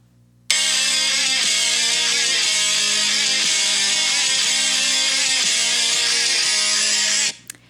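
A loud burst of a heavy metal version of a Christmas carol, a dense wall of distorted guitars playing a rapid, repeating riff of shifting chords, cutting in abruptly and stopping suddenly after about seven seconds, with no voices.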